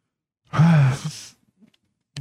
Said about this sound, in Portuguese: Eu tô bocejando de tanto tanto sono, mano.